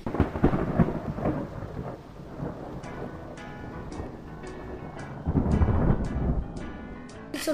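Heavy thunder rumbles over steady rain, with a loud deep crash at the start and a second rolling boom later, while sharp drip-like ticks patter through the downpour.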